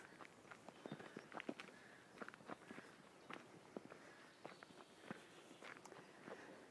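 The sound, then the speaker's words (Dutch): Footsteps of someone walking at a steady, slightly uneven pace, each step a soft crunchy tap, fairly quiet, continuing throughout with no voices. “Ik loop gewoon met je mee en ik luister.”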